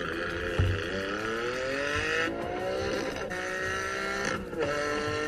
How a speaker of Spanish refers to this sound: Este, ya me llegó el, el ringtone para arroba sopita Lima Miren, lo, lo vamos a escuchar.